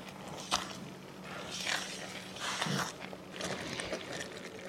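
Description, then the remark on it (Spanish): Thick fruit jam bubbling as it boils uncovered on a stove, with slow, irregular soft plops and pops over a steady low background hum, fairly quiet. “Como escuchan, ya se oyen unas burbujas em, y las van a ver.”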